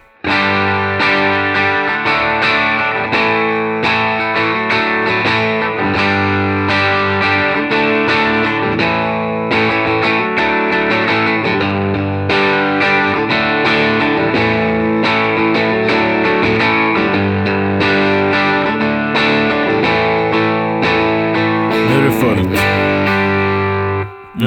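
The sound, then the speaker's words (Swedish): A loud, heavily distorted electric guitar plays continuously through a pedal while the pedal's body control is turned up from zero toward full, chords ringing thick and sustained with a steady strumming pulse and no voices over it. “Men nu ska vi prova den här bodykontrollen.”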